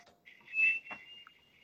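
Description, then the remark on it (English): A voice imitates a very slow jet approaching in a video game: a thin, steady high whine held throughout, with a breathy rushing swell in the middle, short and fairly quiet, with no talking. “it's the slowest jet in the world, and you hear it approaching, and it's like”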